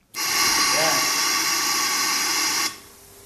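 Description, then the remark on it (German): A test mannequin's simulated cough from the middle one of several coughing mannequins in a room used for experiments: one loud, steady burst of hissing air lasting a couple of seconds, then an abrupt cutoff, releasing aerosol from its mouth. It sounds more like a pneumatic blast than a human cough. “und dann begann die Puppe in der Mitte zu husten. Das hört sich zwar nicht ganz nach Menschenhusten an, aber.”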